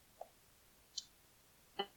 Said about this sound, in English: and I'm just clicking on a link that's on the actual page that I pulled up.